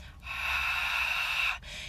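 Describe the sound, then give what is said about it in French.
A long, breathy exhale pushed through a tightened throat, like fogging a mirror, steady for over a second, followed by a shorter, softer breath: Ujjayi yoga breathing with the glottis compressed and the mouth closed. “à la compression qu'il y a dans la gorge lorsqu'on fait de la buée, soit dans des lunettes ou soit dans un miroir.”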